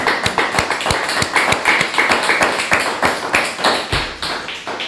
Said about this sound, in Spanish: Y damos un fuerte aplauso, papá. Hashem.